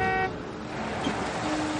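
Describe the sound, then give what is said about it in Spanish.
A car rolls up with a steady engine rumble and road noise, a brief horn toot sounding at the very start, before the vehicle settles to a stop in front of a man opening a garage. “Un coche se detiene frente a él.”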